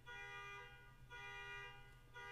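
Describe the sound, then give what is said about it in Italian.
A car alarm blares outside, a harsh electronic tone repeating in pulses about once a second, fairly faint, with a low steady rumble underneath and no talking. “Lo sentite, vero? L'allarme della macchina che Ah, ok, ha smesso.”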